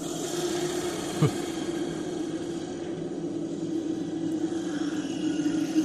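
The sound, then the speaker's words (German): A steady, low engine rumble from a car that has broken down in a forest in the rain drones on throughout, with a constant hiss layered over it and a single brief knock partway through. No voices can be heard. “Ich meine, wir sind jetzt gerade hier mit dem Auto liegen geblieben, mitten in diesem Waldstück und es regnet und es äh, ist schlecht Wetter, aber wo sind wir?”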